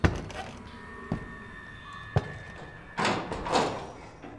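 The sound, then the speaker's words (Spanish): A door is shut: a few sharp wooden thuds and clunks spaced about a second apart, then a brief scraping rush of movement as it settles closed. “Cierra esa puerta. ¿Quieres?”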